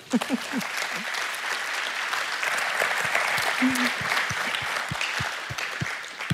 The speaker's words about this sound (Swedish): Tack för ett fantastiskt seminarium. En underbar eftermiddag. En stor applåd.